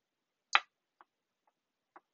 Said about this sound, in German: Das Klacken, was man da jetzt gerade gehört hat, das war die die Aufbewahrungs- und Ladebox. Das heißt, man, ähm, man steckt diese Ohrhörer dann in diese Box rein, macht sie zu und kann die Kopfhörer dann so auch in dieser Box.